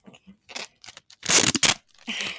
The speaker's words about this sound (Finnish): Joo, siis mä pistin tätä keltaista teippiä tähän tota, ympärille, että niin, niin.